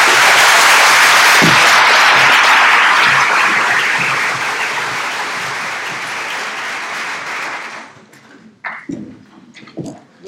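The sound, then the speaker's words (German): An audience applauds a colleague steadily and loudly for about eight seconds, a dense wash of clapping that then fades out, leaving a few faint scattered claps and soft noises. “Ich glaube, die Kollegin hat einen Applaus verdient.”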